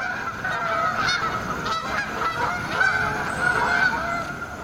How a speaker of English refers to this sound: Step outside and you might hear them migrating after dark or flying above the clouds, invisible. The rhythmic honking of Canada geese is what you probably hear most often.